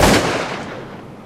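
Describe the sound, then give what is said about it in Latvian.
A single loud gunshot cracks out, its booming echo rolling away and fading over the next second, fired toward a low-flying aircraft over forest treetops and missing. No voices. “uz ko saņēmuši atbildi - piķiera Belastotska šāvienu”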